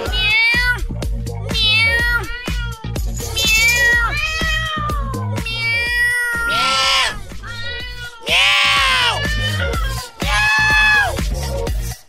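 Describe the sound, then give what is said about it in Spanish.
A cat meows angrily and insistently, a rapid string of loud, drawn-out yowls and cries one after another, without pause for about twelve seconds. “De una gata enfurecida que no dejaba salir a alguien de su casa.”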